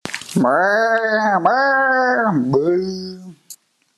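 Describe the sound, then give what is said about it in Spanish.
A voice imitates a cow lowing: one long, loud moo, drawn out for about three seconds with two brief wavering dips, then a short click as it ends. “Vaca tras vaca, haciendo susurrido todo raro, ¿no?”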